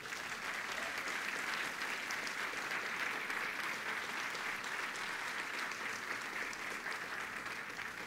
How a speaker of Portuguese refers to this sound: Dá um aplauso ao Rei da Glória.